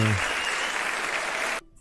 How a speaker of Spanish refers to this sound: Ahí lo tienes. Sí, sí, sí. los aplausos, tío, por favor.